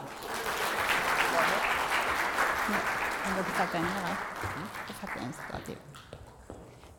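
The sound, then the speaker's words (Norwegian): An audience claps steadily in a dense wash of applause that holds for several seconds, then thins out and fades at the end, with some talking mixed underneath. “Du får en klapp, du òg.”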